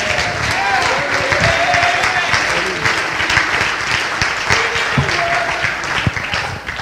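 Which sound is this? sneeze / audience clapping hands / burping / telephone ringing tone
audience clapping hands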